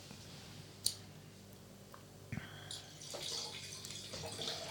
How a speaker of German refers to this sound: Klingt, herrlich. Gut. Ich finde, ich finde dieses Geräusch, wenn man Wein eingießt. Mm, unfassbar. Oh, das ist irgendwie so. Es gibt selten so schöne Geräusche, die einen so erfüllen wie das.